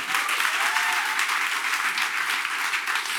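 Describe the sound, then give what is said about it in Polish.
An audience applauds steadily, a dense wash of many hands clapping at once with no gaps or individual claps standing out, holding an even loudness throughout. “Brawo.”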